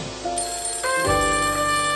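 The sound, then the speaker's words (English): A telephone ringtone plays for an incoming call, a bright electronic melody of steady tonal notes that steps up in pitch and gets louder partway through, with no talking. “Uh, oh, hold on, I'm getting another call.”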